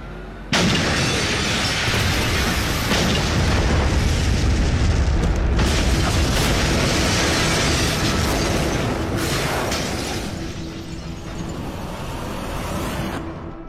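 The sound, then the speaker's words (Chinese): A bomb explodes on a No. 45 passenger bus in the Chinese time-loop suspense drama series Reset (开端). A single loud boom goes off abruptly, followed by a long, dense roaring rumble of debris and fire that slowly tapers off over about thirteen seconds, with no voices. “报案人要求警方务必赶在炸弹爆炸之前将公交拦下，可终究还是晚了一步。”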